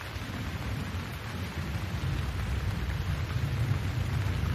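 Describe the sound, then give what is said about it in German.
Steady rain hisses while a low, distant thunder rumble from a thunderstorm swells underneath and rolls on without a break. No voices are heard. “Höre das Grummeln des Gewitters in der Ferne.”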